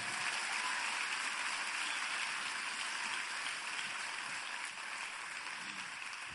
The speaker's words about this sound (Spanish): Ahora dale un fuerte aplauso al rey.